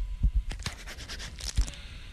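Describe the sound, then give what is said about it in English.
A fingernail scratches rapidly at the cover of a scratch-and-sniff CD/DVD, a quick run of bright, raspy strokes in an uneven rhythm, with a few soft low thumps and no talking. “Scratch and sniff it.”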